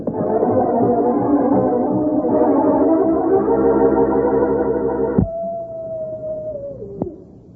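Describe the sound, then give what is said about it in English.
Several wolves howl together in long, overlapping, wavering cries that are loud, then the chorus cuts away to one drawn-out howl that slowly sinks and fades. “Oh, wolves! Wolves! And they're closing in.”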